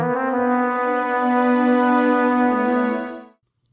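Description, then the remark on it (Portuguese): A short four-note orchestral motif, composer James Horner's signature, from a film score; in his Troy soundtrack it became the theme of danger. Long, held, brassy notes played loud and full, no voices, cutting off abruptly after about three seconds. “essa melodia aí de quatro notas que a gente está ouvindo”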